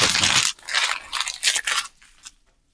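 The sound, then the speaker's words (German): A wrapped package with foil beneath its paper wrapping being pulled open: a loud burst of crisp crinkling, then several shorter rustling crackles that fade away. No one speaks. “Da ist Folie unter dem Papier.”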